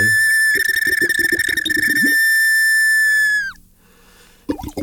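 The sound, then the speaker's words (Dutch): A small whistle is blown in one long, shrill, steady note lasting a few seconds, with a fluttering, burbling undertone at the start, before it cuts off abruptly into near silence. “En dan heb ik in de expositie nog andere fluitjes die meer knorren.”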